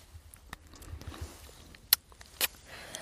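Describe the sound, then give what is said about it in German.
Someone bites into a small sloe berry about the size of a blueberry, two brief crisp crunches a moment apart, over faint rustling and soft handling noises in a quiet outdoor setting. “Willst du mal reinbeißen?”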